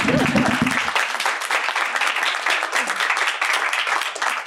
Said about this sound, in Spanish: Qué buena niña, un aplauso.